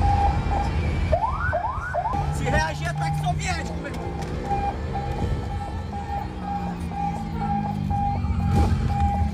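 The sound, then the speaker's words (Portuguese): A Military Police of Amazonas state car siren, switched on while chasing a motorbike on the main road of Manoa, lets out a few quick rising whoops, then holds a steady high wail over rumbling traffic noise, with people's voices mixed in underneath. “Pegaram a contramão agora aqui na principal do Manoa, liga o sininho.”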